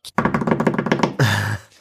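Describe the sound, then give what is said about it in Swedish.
A quick drumroll of rapid, even hits lasting about a second, ending in a loud sustained final note that fades out. No one speaks over it. “Och eh, det är då ingen mer eller mindre eh, trumvilver, tack.”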